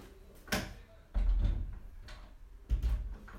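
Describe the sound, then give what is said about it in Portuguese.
A door is pushed shut firmly: a sharp knock followed by two heavy, low thuds spaced about a second apart, with no one talking. “Deixa-me só aqui fechar bem a porta para, não, para vocês focarem.”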